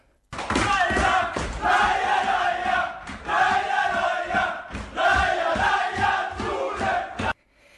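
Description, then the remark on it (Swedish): A loud crowd in Umeå cheers and shouts for about seven seconds, swelling in waves with rhythmic thumps underneath, then cuts off abruptly. “Umeå jublade.”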